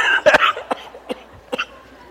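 cough

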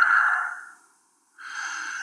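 gasping

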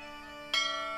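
memorial bell ringing

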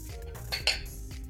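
glasses clinking

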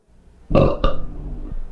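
loud burp

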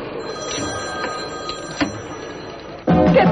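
telephones ringing

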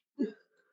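sneeze

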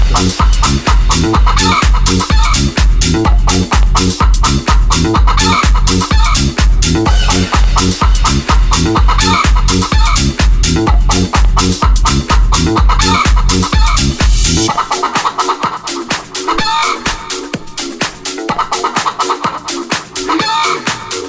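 chicken clucking

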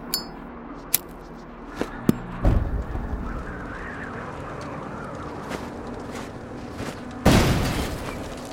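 car explosion

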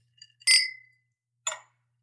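wine glasses clinking

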